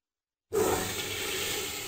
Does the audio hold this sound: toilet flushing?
yes